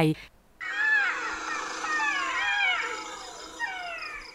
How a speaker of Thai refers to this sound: ซึ่งศัตรูในธรรมชาติก็มีเสือโครง่ง แล้วก็ฝูงหมาใน